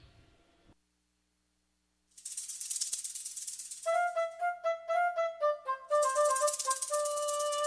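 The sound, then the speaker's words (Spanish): After a short pause, a steady hissing shaker starts, then a bouncy, plucky melody joins in short rhythmic notes, like the cheerful instrumental opening of a children's song, with no singing yet. “vamos con esta cancioncita, principalmente como, como dije, para mi compañera Dulce y para todos los peques en casita”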